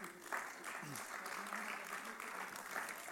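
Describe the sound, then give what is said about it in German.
Steady applause from a crowd, a dense even clatter of many hands clapping for about three seconds, with a few voices murmuring and calling out underneath. “Haben wir jetzt nochmal Applaus?”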